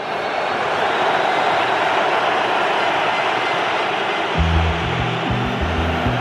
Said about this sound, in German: Die Pfiffe, die Sie hören, kommen aus der türkischen Ecke und sind gegen Özil gerichtet